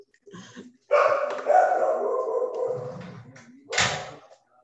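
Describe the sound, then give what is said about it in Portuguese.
A man's own dogs bark repeatedly in the background, a short yip followed by a longer drawn-out bark and another sharp burst near the end, moderately loud, with no talking over them. “É, vocês estão escutando latidos ao fundo?”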